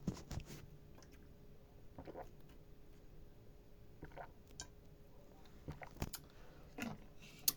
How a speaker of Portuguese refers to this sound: Tomar um gole de água aqui.